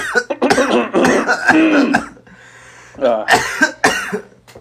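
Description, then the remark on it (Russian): A man coughs several times in quick bursts, clearing his throat, with a brief pause midway before a couple more harsh coughs. “Погоди, сейчас, пока не рассказывай, я, я откашляюсь и просто терпел все это время.”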